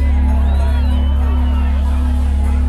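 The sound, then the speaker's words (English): A large concert crowd in San Diego roars and cheers steadily for a few seconds when the performer asks them to make noise, a dense wash of voices and whistles over a deep, constant low rumble from the venue. “All the foxes makes a noise. We got any foxes in San Diego.”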